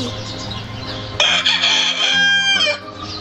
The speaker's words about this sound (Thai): เสียงไก่ขันบอกเวลา ว่าเช้าแล้ว กระทิงน้อย จึงค่อยๆตื่นเช้าขึ้น